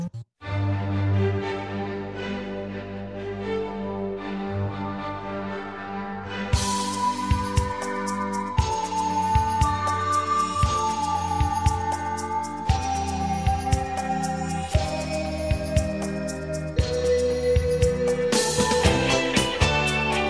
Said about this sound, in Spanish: vamos a poner una rolita de las que puso, propuso Arlo, que ahora no nos acompañó.